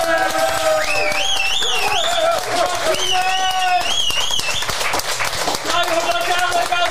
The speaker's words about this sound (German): vielen Dank an das Publikum. Ähm, Nochmal einen ganz, ganz großen Applaus bitte für uns.